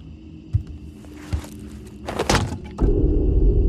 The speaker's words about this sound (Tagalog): Tingnan mo nga itong siwang na to. Parang katulad sa mga napapanood ko sa pelikula. Alay parang pintuan papunta sa underground. O, oo nga no. Subukan nga natin iangat.